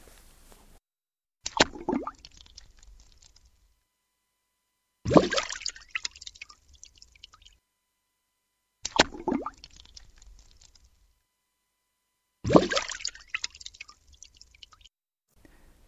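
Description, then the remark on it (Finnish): Two kinds of water plop, a splashy one and a deeper plunk, alternate twice each, four clear drops into water separated by silent pauses, with no talking. “Tässä on lumpsahdus ja pulahdus, mutta toisaalta e, ei mulle ole epäselvää ollenkaan, että, että kumpi on kumpi.”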